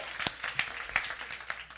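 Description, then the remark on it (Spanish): Brief applause from a small group, a burst of sharp, uneven claps over a couple of seconds, moderately loud. “Emergencia, un aplauso”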